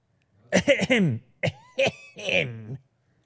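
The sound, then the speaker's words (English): A few short, deliberate fake coughs in quick succession, a social cough, voiced and somewhat theatrical, like a polite attention-getting cough. Fairly loud, with no talking around them. “It was a fake. That was a social cough.”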